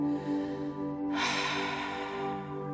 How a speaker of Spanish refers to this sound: haciendo sonido. Una vez, inhala por tu nariz, sostén y exhalas por tu boca. Ah. Inhala y exhala.